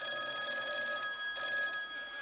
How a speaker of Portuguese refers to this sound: Tá. Então, aí é um telefone tocando, sem parar.